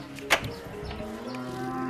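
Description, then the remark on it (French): Boulonnais sheep, an endangered breed of Hauts-de-France, bleat on an organic farm at Sainte-Segré in the Somme: a long drawn-out wavering call running through the whole moment, with a brief sharp knock near the start and no one speaking. “C'est du mouton euh, boulonné, donc c'est euh, la race euh, des Hauts-de-France, qui est une race qui a été classée dans les races menacées.”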